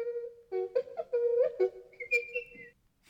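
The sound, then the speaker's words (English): R2-D2, the Star Wars robot droid, whistles a quick run of warbling electronic chirps and beeps, with gliding pitch bends and a rising trill near the end, while navigating the swamp in Dagobah; clear, with no talking. “an actual whistle makes yeah. its way out.”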